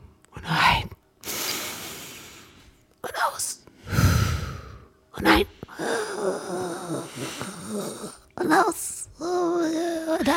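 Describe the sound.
A slow, breathy exhale rushes out during a seated meditation breathing exercise, followed by a second softer breath, and then people start talking and laughing lightly.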